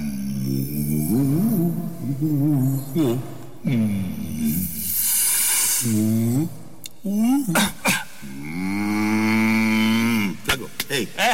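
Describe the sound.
A human voice imitates a cow with a run of drawn-out, swooping moos, loud, with short breathy gaps between the calls and a throaty, cough-like burst midway.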